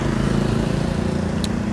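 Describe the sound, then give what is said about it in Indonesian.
Steady roadside traffic noise with a continuous low engine rumble from motorbikes and trucks, including Pertamina trucks, loud and unbroken throughout, with a brief sharp click near the end. “Dan benar, kalian mendengarkan suara-suara truk motor nanti.”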